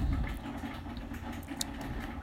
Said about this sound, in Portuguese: É o barulho da cafeteira, tá, gente?